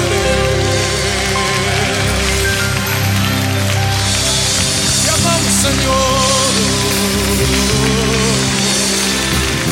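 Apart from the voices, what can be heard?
audience clapping hands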